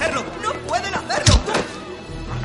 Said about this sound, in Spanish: Derriban la verja.